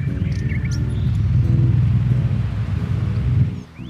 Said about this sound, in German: Das ist mein Ventilator. Der leistet im Moment Schwerstarbeit. Der läuft eigentlich von morgens bis abends weil Klimaanlage finde ich doof, die braucht man nicht unbedingt, aber Ventilator ist schon toll, der wirbelt die Luft so schön auf